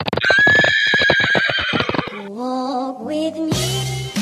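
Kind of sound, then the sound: animal, horse neighing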